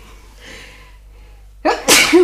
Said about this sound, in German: Ich würde sagen tatsächlich ja, weil, warte, ich muss niesen.